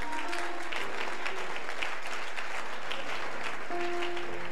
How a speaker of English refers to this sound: Give the Lord a wonderful clap of him.